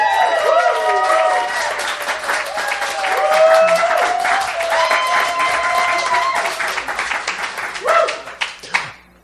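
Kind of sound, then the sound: crowd, audience applause and cheering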